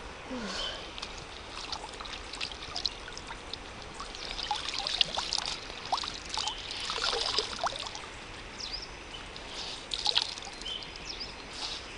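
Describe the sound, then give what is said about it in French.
River water pours and splashes in an irregular stream as someone washes, with small drips and splashes through the steady trickle and a couple of brief louder gushes. No one speaks. “Mais là, entre les brindilles et les fessébums, je crois qu'un passage par la rivière va s'imposer.”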